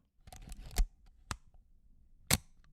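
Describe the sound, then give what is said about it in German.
Crisp mechanical clicks of a vintage Leica M3 rangefinder camera shutter, built in 1954, with a short flurry of small rattling clicks followed by three sharper snaps spaced apart. “Ja, das war die Leica M3, Baujahr 1954.”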